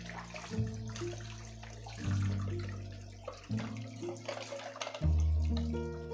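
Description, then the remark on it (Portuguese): Tap water runs steadily while dishes are washed, with scattered clinks and knocks of plates and utensils, over a low, shifting musical drone underneath. “Nossa, eu lavei a louça até bem rápido, no meu ver.”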